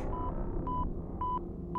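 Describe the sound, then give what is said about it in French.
A sci-fi scanner alert, meant to warn when something arrives out of hyperspace, signals an approaching object, pinging in steady, evenly spaced electronic beeps, four short tones in quick succession, over a constant low engine-like rumble with no voices. “C'est censé nous alerter si quelque chose déboule de l'hyperespace.”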